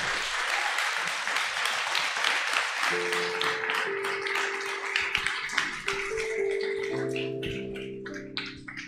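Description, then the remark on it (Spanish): An audience bursts into sustained applause for God during a Spanish-language sermon, a dense crackle of many hands clapping at steady loudness, with a low sustained tone, like an organ or keyboard, entering partway through and continuing underneath. “Dar un aplauso a Dios.”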